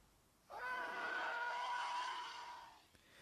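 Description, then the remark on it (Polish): A phone ringtone of a Star Wars TIE Fighter-style starfighter screech, going off as group text messages arrive on a weekend evening, bursts in suddenly: one loud, roaring howl with whining tones that holds for about two seconds before fading, with no voices. “I brzmi to, jakby nagle, kurde, Gwiezdne Wojny miało w dużym pokoju, jakby jakaś armada TIE Fighterów nadleciała, słuchaj absolutnie niesamowite wrażenie.”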